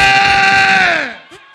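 A crowd at a DJ night at Ye Wei Yang screams and cheers in one loud, sustained burst, a shrill dominant voice holding a steady pitch before sliding downward as the noise fades away after about a second.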